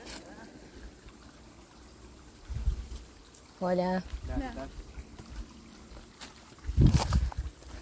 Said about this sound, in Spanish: Y justamente hoy escuché algo muy interesante y acá hay agua.